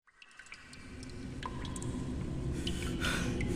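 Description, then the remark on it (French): Scattered water drops plink at irregular intervals in a maze of tunnels and caves, one falling on a sleeping hunter's forehead, over a steady, low rumbling ambience that gradually swells, giving an enclosed, cavernous feel. No voices are present. “Une goutte d'eau tombe sur le front de Foudre Blanche, qui se réveille.”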